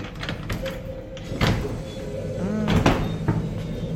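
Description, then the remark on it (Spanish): Someone tugs at a locked cabinet door that won't open, producing several dull knocks and rattling thumps at irregular intervals, with faint voices in the background. “No, está cerrado, no se puede abrir.”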